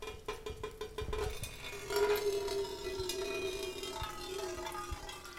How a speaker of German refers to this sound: Und wenn man das alles unter die Schlauchöffnungen der Flaschen legt, wie mag das klingen? Die ersten zarten Töne. Wassertropfen fallen auf eine Blechdose. Und wenn mehr Wasser aus dem Flaschenschlauch rinnt?